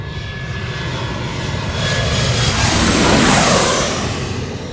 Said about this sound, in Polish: Możecie znów posłuchać e, dźwięku maszyny lądującej.